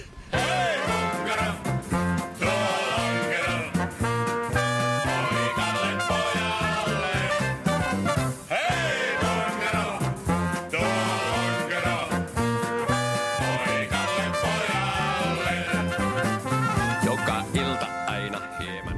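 A 1970s Finnish pop song plays loud and up close, with a steady driving drum beat, bright layered instruments and a full, busy arrangement running without pause.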